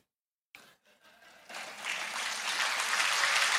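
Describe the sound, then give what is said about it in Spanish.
A few scattered claps break a brief silence, then an audience's applause swells into dense, steady clapping that keeps building in loudness until the end, with no voices over it. “No he escuchado ni un solo aplauso hoy.”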